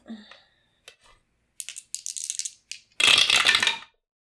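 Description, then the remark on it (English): Dice rattle in short bursts as they're shaken, then tumble out in a louder clattering roll lasting under a second, with no talking; the roll comes up six. “Uh, roll a track for me.”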